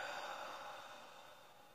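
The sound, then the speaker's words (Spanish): A person exhales during a guided breathing exercise: a soft, airy exhalation streams out steadily for nearly two seconds, quiet, gradually fading toward the end with no talking. “Exhala.”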